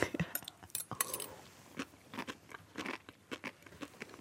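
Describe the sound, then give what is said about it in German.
Someone chews a mouthful of sea grape seaweed, producing a rapid series of small wet pops and crunchy clicks, fairly quiet, with no talking over it. “Man könnte sich aber natürlich einfach vorstellen, dass es Salat ist.”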